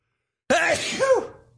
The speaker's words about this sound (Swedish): Uh, vänta, oj jag måste nysa.